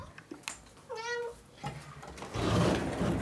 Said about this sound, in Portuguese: Vai, Pato, sai. Olha, francamente, essa gata. Vocês vão ver, vai dar 10 segundos, ela vai pedir pra entrar de novo.